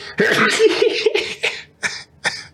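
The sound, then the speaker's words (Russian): A loud, breathy sneeze fit: one long noisy burst, then two short sharp explosive bursts a moment apart, with no talking around them. “Да, всем очень интересно, ты чихаешь.”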